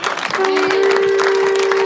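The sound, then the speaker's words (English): A large audience at a church service claps loudly and continuously, dense and steady throughout, with the sustained horn-like tone of blown shofars holding underneath from early on and faint cheering mixed into the applause. “Let's make a clap. Come on, let's get a real crowd in this house together.”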